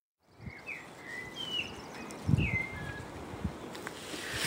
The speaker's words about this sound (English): I just wanted to share the bird song with you.